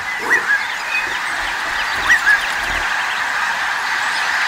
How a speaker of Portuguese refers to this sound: Em bandos que tapavam o sol. Milhares de andorinhas, pássaros pretos, sabiás, pardais, tico-ticos, periquitos. Foi uma loucura. O espaço escureceu. O barulho dos pios e dos gritos dos pássaros era ensurdecedor.